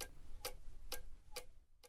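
A clock ticks steadily, five crisp, evenly spaced clicks about twice per second, fairly quiet over a faint low background rumble, with no voices.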